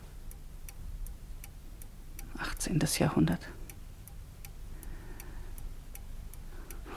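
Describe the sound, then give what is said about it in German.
An old clock above a fireplace with a golden grille ticks steadily, soft, even beats running throughout, while a voice briefly murmurs a few words midway. “Die alte Uhr da oben, über dem Kamin mit dem goldenen Gitter.”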